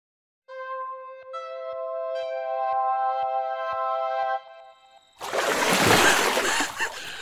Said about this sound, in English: I splash and swim with no ripples. Lake remains smooth as glass.